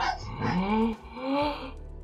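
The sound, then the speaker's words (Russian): A dog barks twice, each bark drawn out with a tonal, whiny edge, separated by a brief pause. No one speaks. “Да хватит гавкать-то, ну!”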